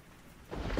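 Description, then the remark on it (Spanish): A brief night storm sound: a quiet hiss swells suddenly into loud rushing rain, with a deep thunder rumble building at the very end. No one speaks. “Entre truenos y relámpagos del temporal que azotaban,”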